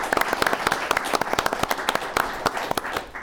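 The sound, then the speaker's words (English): A round of audience applause at a Chamber business event in the Denver metro area, welcoming the owner of a local Service Master business; dense irregular clapping from a group of people, steady for a few seconds before tapering slightly. “So let's give him a round of applause.”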